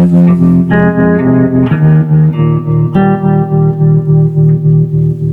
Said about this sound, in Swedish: För mycket av det här som man har som diskantskimmer det är faktiskt inte diskant. Det är en hel del distorsion. Och då har vi ändå inte tagit ut så mycket än.